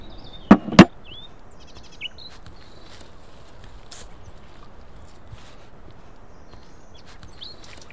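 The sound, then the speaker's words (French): A piece of boxwood being shaved flat with a blade by a seated person to make a saw handle: two quick, sharp cutting strokes early on, then near silence with faint bird chirps and a few soft taps. “On enlève de la matière et après, euh, on a un beau manche pour la scie.”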